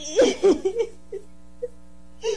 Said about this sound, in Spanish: Ah, seguí llorando.